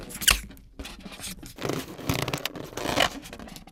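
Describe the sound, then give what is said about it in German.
Squeaky rubbery rubbing and stretching sounds as the neck of a fully inflated green rubber balloon is twisted and knotted: a burst of friction at the start followed by repeated scratchy squeaks and rustles. “Mache ich noch einen Knopf rein”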